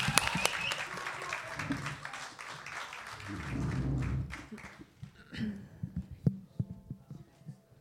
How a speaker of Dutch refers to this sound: Groot applaus.